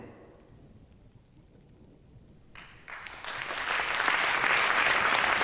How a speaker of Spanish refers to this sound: Escuchen esos aplausos, vamos.